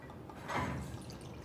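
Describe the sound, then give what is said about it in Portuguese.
A brief, soft splash of coconut water being poured, rising for about a quarter second and then fading into a quiet background with no one speaking. “É água de coco, então, beleza.”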